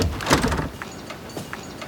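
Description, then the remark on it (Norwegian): A loud clattering rattle as the locked door of Winter's house in Snøfall is tried, then a few softer knocks and jiggles, as if the handle is pulled again and again without the door giving way. “Ja, men vi kikker døra først.”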